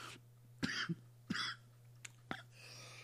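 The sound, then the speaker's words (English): A person coughs several times, three sharp, hacking bursts with short pauses between them, over a faint steady electrical hum. No one speaks. “Just let me let oh, me just cough.”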